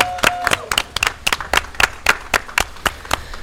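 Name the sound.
applause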